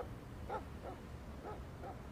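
A dog barks four times in a loose, uneven rhythm, the barks somewhat muffled over a low background rumble, with no voices present.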